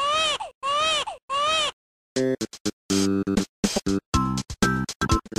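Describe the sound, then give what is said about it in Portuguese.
Three quick, identical wailing cries of Baby Mario from the video game Yoshi's Island, loud, repeated in a steady rhythm, followed by a man talking rapidly. “Você lembra, mano, o barulhinho dele chorando, velho?”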